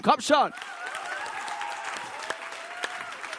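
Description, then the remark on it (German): An audience at a Sunday church service applauds the Dream Teams with dense, sustained clapping after a brief shouted voice at the start, with a few louder individual claps standing out from the even wash of sound. “Die ganzen Dream Teams, lass mal den Dream Teams einen fetten Applaus geben.”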